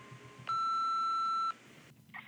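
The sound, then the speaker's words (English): A single steady electronic beep of an answering machine sounds loud and clear for about a second, a pure tone with faint harmonics, then cuts off into quiet line noise. “When you hear the beep noise, please speak into the telephone receiver and leave a message which I will play back and listen to later.”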